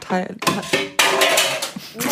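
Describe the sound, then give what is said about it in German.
A phone and a small box of cards tumble and clatter loudly, with a sharp rattling crash followed by a second burst of scattering clacks, while a voice briefly exclaims. “Das ist mein Handy gewesen. Und die Box mit den Karten.”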